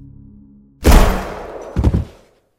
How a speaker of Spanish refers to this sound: Un silencio opresivo procedió al estruendo del disparo, llevándose consigo los últimos suspiros de un detective que cumplió al pie de la letra con su macabro plan.